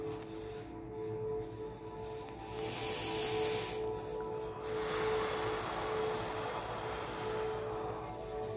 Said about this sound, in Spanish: Respiración número 13. In and out.